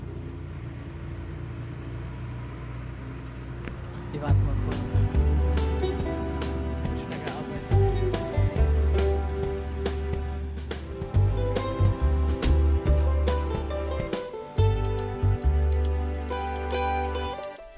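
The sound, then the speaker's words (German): A huge tractor pulling what seem to be two loaded trailers rumbles past, its heavy engine loud and throbbing for most of the stretch, with clattering overtones; someone briefly speaks near the start. “Was ihr da gerade gehört habt, war ein Traktor, der an uns vorbeigefahren ist.”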